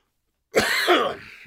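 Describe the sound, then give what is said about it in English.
A single harsh, rasping cough bursts out, lasting about a second with a rough, throaty quality before trailing off, with no talking alongside it. “Still getting this nasty, nasty cough.”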